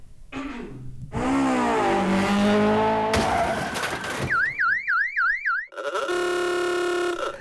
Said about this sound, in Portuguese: vamos, vamos botar aqui a vinhetinha, vamos, vamos para um ônibus aqui, peraí.